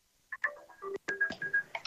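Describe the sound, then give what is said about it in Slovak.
A phone ringtone plays a quick melodic run of bright electronic beeps and tones, with short pauses between, clear with no talking over it. “Nejaký, niek- niekto tam zvoní, to je u mňa či u vás?”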